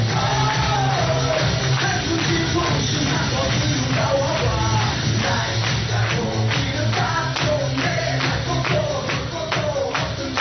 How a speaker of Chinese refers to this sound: 好，我们掌声在哪里？